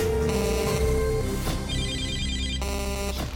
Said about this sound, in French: Vous êtes sur le répondeur d'Africa Radio. Après le bip, c'est à vous.